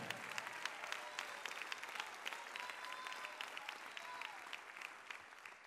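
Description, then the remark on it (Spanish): An audience applauds the Lord steadily, a dense wash of many hands clapping at an even level for several seconds, with no one speaking over it. “Si le va a aplaudir al Señor, únanse y déselo fuerte a Él.”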